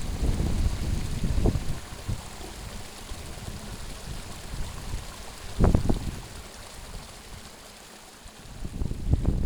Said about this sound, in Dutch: Van kleine riviertjes en beekjes die naar beneden stromen. Want de Paramo is uiteindelijk niets anders dan een waterfabriek.